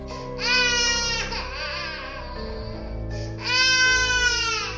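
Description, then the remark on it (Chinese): A child crying, heard from the basement of a school dormitory at night around nine o'clock, in two loud, high-pitched wailing bursts, separated by a quieter stretch of sobbing. The cries are shrill and sustained, with no talking. “而学校自从发生那件事情之后，每天晚上大约到了九点多，宿舍的地下室就会传出阵阵的小孩哭声。”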